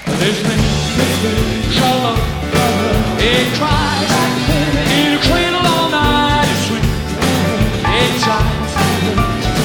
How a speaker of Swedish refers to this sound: avhandla … med … från 1980